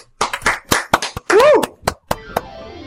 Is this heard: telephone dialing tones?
no